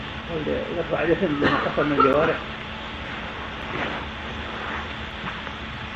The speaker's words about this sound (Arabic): تكييف